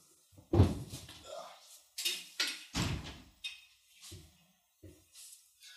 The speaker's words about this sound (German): Ich muss jetzt sagen, wobei, bevor ich das sage, muss ich einmal hier ganz kurz das Fenster zumachen. Das macht nicht nämlich Kürre, das haben wir vergessen in der Pause zuzumachen.